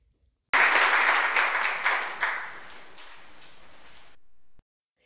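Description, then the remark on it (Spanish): An audience at an evening event with authors breaks into dense applause for an author, many hands clapping at once in a loud, bright burst that starts abruptly and gradually eases over about four seconds before cutting off. “Entonces, un aplauso, por favor.”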